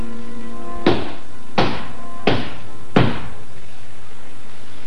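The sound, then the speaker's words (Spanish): Four heavy, evenly spaced, loud knocks on a wooden apartment door, insistent and untimely, each with a short resonant boom, followed by silence with a faint low hum beneath. “En el apartamento que compartían tres de ellos sonaron unos golpes en la puerta, unos golpes insistentes e intempestivos que les pusieron en guardia de inmediato.”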